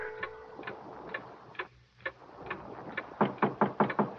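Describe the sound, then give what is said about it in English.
A clock ticks steadily with crisp, evenly spaced clicks over a faint low hum, the ticking growing louder and quicker toward the end. No one speaks. “Mostly the man watched the clock.”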